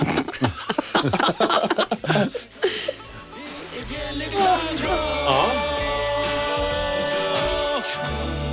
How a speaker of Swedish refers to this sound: Det där var Bjelle Klang och lite munspel där på slutet som alltså, ni kanske hörde. Ja, som du har jobbat som gatumusikant och kan ju bara jullåtar på, på munspelet.